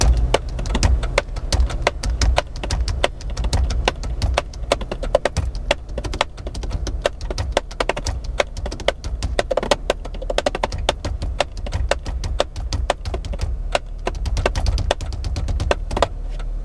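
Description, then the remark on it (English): Rapid hand taps drum out a busy, steady rhythm on hard surfaces inside a car waiting at a stoplight, as the driver practices drumming with their hands, fairly loud over a low engine rumble, with no talking. “Now, instead of just sitting there, I can actually practice with my hands.”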